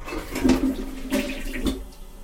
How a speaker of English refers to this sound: I've been trying to flush it to see if it'll go down. Let me try it one time here.